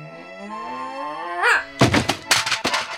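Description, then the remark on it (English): A sustained, wavering accordion tone plays, then gives way to loud knocking on a bedroom door: several hard, hollow raps in quick clusters, with no one speaking. “Uh, the music seems to be coming from Scotty's room, so I'm gonna knock, see if I can see what's going on.”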